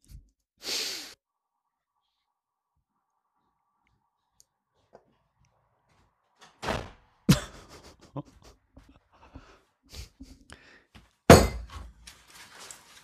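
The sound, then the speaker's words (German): A door slams shut with a loud, sharp bang, surrounded by rattling and clattering knocks, plus a second heavy thud near the end; a breathy whoosh comes early amid otherwise quiet. “Musst du die Tür so zuschmeißen?”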